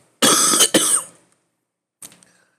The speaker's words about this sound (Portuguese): Olha a tosse, caralho.